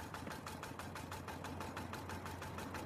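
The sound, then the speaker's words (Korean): An old, weather-faded boat's engine chugs in a steady, rapid rhythm over a low droning hum, heard from a distance at an even volume as the boat approaches through thick fog. No voices. “멀리서 익숙한 엔진 소리가 들려왔다.”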